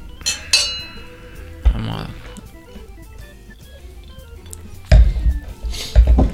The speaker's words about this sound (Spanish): Ah, vamos a brindar primero. Salud.